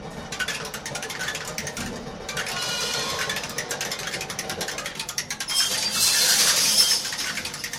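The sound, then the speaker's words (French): Homemade mechanical sound machines, built from a piano, clatter and tick in a dense, rapid rhythm, like ratchets and gears turning together, running continuously in Langon in July 2007 and growing louder and brighter near the end. “Euh, tu fais des machines.”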